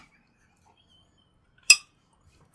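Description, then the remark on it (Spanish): Two bright, ringing clinks of beer glasses of hazy IPA touching in a toast, one loud, then a softer second tap a moment later, with near silence around them and no talking. “Ah, para los, para los compas, ¿no? Salud.”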